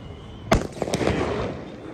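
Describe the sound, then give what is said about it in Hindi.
Firecrackers set off by children in the morning at the Sabarmati Riverfront burst in a quick cluster, one sharp bang followed by several smaller cracks and pops, loud, with a faint hiss of background noise and no talking. “ये सुबह सुबह साबरमती रिवर फ्रंट पे देखिए ये पटाखे हो रहे हैं ये पटाखे बज रहे हैं”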